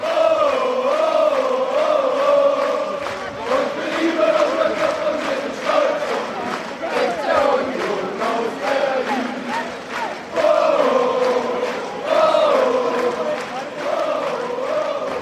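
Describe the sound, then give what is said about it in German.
A football stadium crowd of 19,500 spectators at a penultimate-matchday game sings and chants loudly and without pause, thousands of voices rising and falling together in a steady rhythmic swell for the whole stretch. “Und trotzdem sind 19.500 Zuschauer da und die Stimmung ist grandios.”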